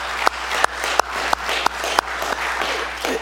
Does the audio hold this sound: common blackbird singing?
no